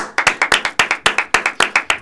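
A short burst of applause: crisp, sharp hand claps in a quick, fairly steady rhythm, about seven per second, with no voices over them.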